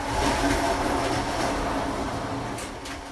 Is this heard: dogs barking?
no